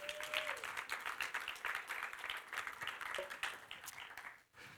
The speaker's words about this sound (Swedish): Amen, ge honom en applåd.